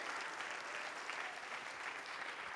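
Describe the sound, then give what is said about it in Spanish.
A church audience applauds during a sermon, a dense wash of many hands clapping at an even loudness for a few seconds with no voices standing out. “Dele ese aplauso a él, hermano.”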